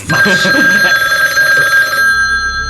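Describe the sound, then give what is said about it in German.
A telephone rings with a loud, continuous, bright metallic bell tone for about two seconds, then cuts off, leaving a quieter low hum. “Oder glaubst du, dass Unheil ist abwenden, wenn das Klingeln einfach ignorierst?”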